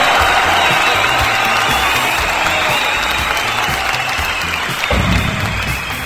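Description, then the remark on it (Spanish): Loud, sustained applause from an audience for the people listening in Tizayuca, a dense wash of clapping that holds steady for several seconds, with faint cheering mixed in and a brief swell near the end. “Así que público, fuerte el aplauso para toda la gente bonita que hoy nos está escuchando en Tizayuca.”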